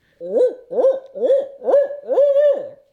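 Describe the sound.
A person imitates an owl with their natural voice, giving five loud hoots in a steady rhythm, the last one drawn out longer than the rest.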